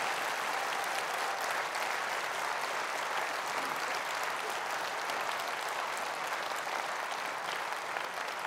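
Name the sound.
audience applauding warmly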